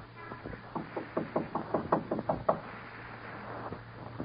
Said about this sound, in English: Go in there and knock on the door. No one's home. Knock again.